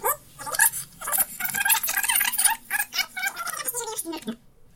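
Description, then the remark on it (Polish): Magnetic audio tape whizzes through at high speed, producing a continuous squeaky, chattering warble for several seconds, fairly loud, before cutting off abruptly. “Ten dźwięk oznacza, że przebijamy taśmę.”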